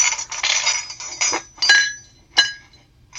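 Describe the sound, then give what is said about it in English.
Dishes and cutlery clatter around a breakfast table in a busy, continuous jumble, punctuated by a few sharp, ringing clinks of china and metal striking together. “You know sometimes that's easy because uh, you know the sound is what it sounds like like you know a clatter around a, a breakfast table”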